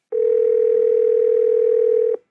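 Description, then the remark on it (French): A single steady telephone ring tone sounds clearly for about two seconds as a phone number is called, one unbroken electronic beep heard on its own with no talking, then it cuts off before voicemail answers. “Et figurez-vous que quand on appelle ce numéro de téléphone, on tombe, on tombe sur.”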